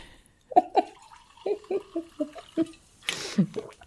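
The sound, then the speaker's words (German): A rapid series of about seven throaty gulps as someone drinks a liquid in quick swallows, ending with a breathy exhale. “Gluck, gluck, man gluck, soll gluck, ja viel, man soll ja viel trinken.”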